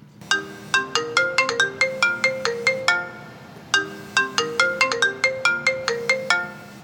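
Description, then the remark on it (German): A phone ringtone plays a bright, rapid melodic pattern of chiming notes, repeating twice with a short pause between bursts, loud, with no voices: a call from a colleague in Berlin at 5 a.m. “Das begann mit dem Anruf meines Berliner Kollegen”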